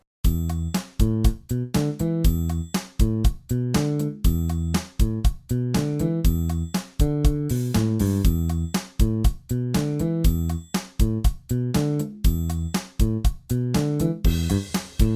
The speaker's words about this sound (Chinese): 那当邦狗和三角铁还有呢那个爵士鼓合起来的声音又长什么样子呢？我们也听一下哦。